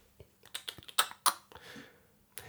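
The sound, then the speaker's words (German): Someone taps a code read from a slip of paper into a number keypad: roughly nine crisp button presses at an uneven pace, a couple noticeably louder, with no talking. “Ich gehe zu diesem Zahlending ja. und probiere das einzugeben, was ich auf diesem ja. Zettel lese.”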